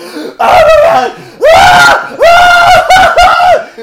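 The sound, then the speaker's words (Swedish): A man imitates Will Ferrell's frantic screaming in a phone booth from the film Anchorman: three or four loud, strained, pitched yells in quick succession, each with brief gaps between them. “I Anchorman, när han står i en jävla telefonkiosk och skriker”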